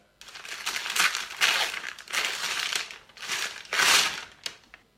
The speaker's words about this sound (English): What's that one? presents. Yeah, that's your, your, uh, your loved ones opening the presents that you gave them. Uh, always a happy time, isn't it?